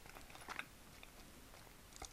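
Quiet chewing while eating a convenience-store bento, with a few crisp, moist bites standing out amid soft mouth noises and no talking.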